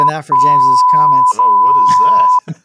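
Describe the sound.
A steady high-pitched censor bleep tone sounds in two long stretches, laid over a man's ongoing speech, with a brief gap between them; the bleep is loud and continuous, masking the talking underneath.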